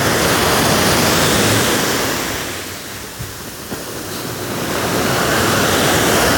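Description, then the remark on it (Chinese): Loud, continuous roar of ocean surf, a broad hiss that swells, eases slightly in the middle, then builds back up as waves crash and wash in, with no voices present. “你们有听到这个浪声吗？这个浪还是很大声”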